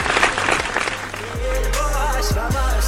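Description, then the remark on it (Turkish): A burst of dense, crackling applause on a radio program, sent to the national team after a 4-2 victory, fills the first second or so, then fades as a steady low hum with a few thin tonal lines takes over. “Buradan bütün alkışları tekrardan milli takımımıza gönderiyoruz dostlar.”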